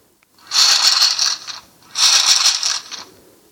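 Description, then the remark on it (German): Two crisp, papery swishes in a row, loud, the Bild newspaper app's page-turn sound effect, each lasting about a second with a short pause between, no voices. “Nee, das ist das Umblättern der Bildzeitung. Und zwar habe ich mir die Bild-App geleistet.”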